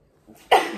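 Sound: sneeze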